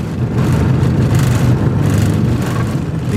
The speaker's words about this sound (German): Wenig später rollt ein Schützenpanzer Puma vor. Glückliche und gespannte Gesichter sind zu erspähen, als sich die Einstiegsluke schließt.